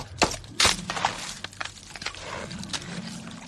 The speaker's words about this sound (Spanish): rompe el hielo del lago.